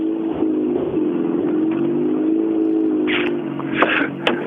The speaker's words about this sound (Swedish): Ja, här har vi nästa bil.